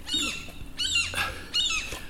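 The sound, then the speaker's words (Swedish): A gull at a pool squawks three times in quick succession, harsh, nasal cries about half a second apart, fairly loud over a faint outdoor background with no talking. “Den där jävla måsen har varit en skitjobb är det.”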